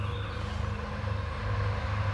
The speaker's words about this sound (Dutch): Hij rijdt. Ja, dat is een trein door een natuurgebied.